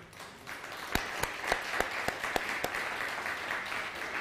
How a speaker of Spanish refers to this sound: Un fuerte aplauso al Eterno.